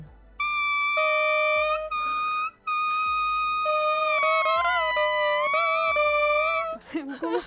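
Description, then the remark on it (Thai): Oboe and bassoon reeds, made of pieces of wood joined together, blown together without their instruments: two loud, buzzy, reedy squawks layered at different pitches, the oboe reed higher and the bassoon reed lower, held for several seconds with brief breaks and wavering pitch near the end. “อันนี้คือเสียงลิ้นนะคะ ซึ่งเนี่ยจริง ๆแล้วมันคือแค่เอาไม้มาประกบติดกันอ่าอาจจะมีวิธีการที่ทำให้มันติดกันนั่นแหละ แล้วก็สร้างเกิดเป็นเสียงขึ้นมาได้ ค่ะ”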